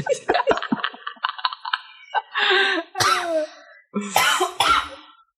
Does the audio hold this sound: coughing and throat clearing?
yes